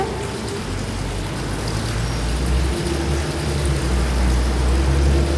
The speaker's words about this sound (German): So Gas geben von den Autos, das tiefe Gas geben von den Autos. Viel Verkehrsgeräusch.